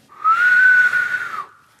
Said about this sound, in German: So, also könnt, ihr, könnt ihr auf den Fingern pfeifen?